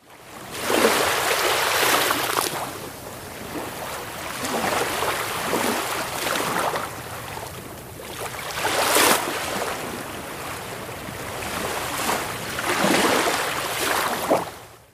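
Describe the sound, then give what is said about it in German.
Soft ocean waves wash in and recede in a slow, steady rhythm, each broad hiss of surf swelling and fading over a constant watery murmur, with no voices. “ja, ich habe mir gewünscht, ein angenehm, leichtes, beruhigendes Meeresrauschen.”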